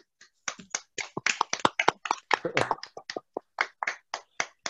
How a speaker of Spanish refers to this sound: Un aplauso para ti.